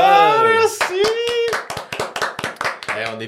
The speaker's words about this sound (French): on est, toujours, on est de moins en moins nombreux à applaudir dans ce podcast.